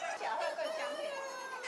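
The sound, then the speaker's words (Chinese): A crowded flock of native chickens on a farm, hens in front and roosters kept separately to the right, with large electric fans placed around for ventilation, clucking together in a dense, steady chorus of overlapping mid-pitched calls that never pauses. “前面呢是母鸡，右边则是公鸡，就是要防止比较凶猛的公鸡去欺负母鸡。”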